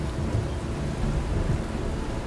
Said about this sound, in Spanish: la lluvia había aumentado en unos minutos y un torrente bajaba por los drenes del techo